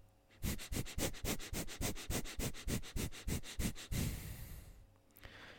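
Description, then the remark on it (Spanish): A quick, steady series of about a dozen sharp breaths through the nose, inhaling and exhaling rapidly as a breathing exercise, each a short puffing burst in an even rhythm, fairly loud, then a longer breath and quiet. “vamos a hacer solo una respiración corta y rápida por nariz, inhalando y exhalando rápidamente de esta forma.”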